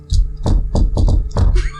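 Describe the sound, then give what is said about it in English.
Someone knocks on a smooth, featureless door about six times in an uneven rhythm, two quick raps falling close together, each hit loud and hollow-sounding, with no one talking. “I'm gonna like knock on it and be like.”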